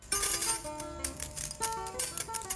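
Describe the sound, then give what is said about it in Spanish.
A bunch of car keys jingles as a father hands them to his daughter, a quick run of bright metallic clinks and rattles over about three seconds, with no one speaking. “Toma, son las llaves de tu coche.”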